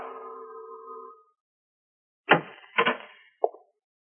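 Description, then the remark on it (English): A doorbell at a door marked manager, at the head of the stairs of a hotel above a Chinese laundry, rings once with a sustained, fading tone for about a second, then after a pause come three dull thuds, fairly loud, with no one speaking. “At the head of the stairs was the door marked manager. I rang the bell.”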